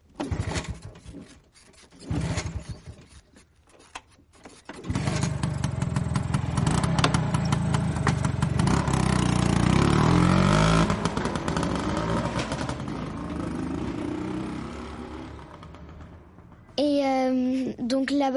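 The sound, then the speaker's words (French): A few scattered clicks and knocks, then a scooter engine catches and runs loudly with a steady, buzzing idle for about ten seconds before a voice briefly breaks in at the end. “on fait beaucoup de scooters.”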